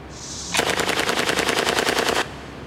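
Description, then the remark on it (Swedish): A loud, sustained burst of rapid automatic fire from a pair of replica automatic pistols firing blanks, shot in a deserted, run-down industrial area in the middle of the night, roughly a second and a half of evenly spaced shots, preceded by a faint high-pitched whine, with no talking. “Och Ender och Babylöst hade tagit sig till ett öde nedslitet industriområde mitt i natten och börjat skjuta serieeld med de här pistolerna”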